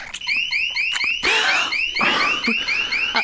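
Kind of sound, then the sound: signal or alarm, alarm going off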